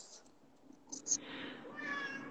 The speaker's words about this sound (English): Oh, yes. Your cat.